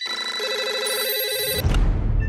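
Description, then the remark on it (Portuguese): A telephone rings with a bright, warbling electronic tone for about a second and a half, then cuts off into a burst of low rumbling noise. “telefone toca, eu atendo o telefone.”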